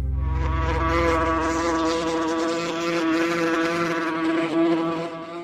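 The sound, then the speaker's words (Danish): A wasp buzzes steadily, a loud continuous drone with a wavering pitch that holds for several seconds without pause. “Den her lyd vil du komme til at høre 15-20% mere i år i forhold til sidste år.”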